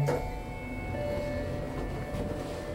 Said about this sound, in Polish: Winda się otwiera.